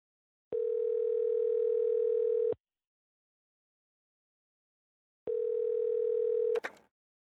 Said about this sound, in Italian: Con la scusa di comprare dolcetti per i colleghi, si ferma davanti a una cabina telefonica e digita il 911.